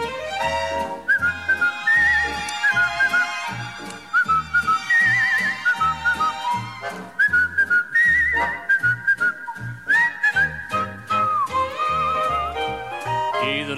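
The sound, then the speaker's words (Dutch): A bright whistled melody in a song carries over a bouncy accompaniment with a steady beat, the whistling in sustained, gliding phrases that pause and return several times, loud throughout. “Afluit je het zo. Of zing je het zo?”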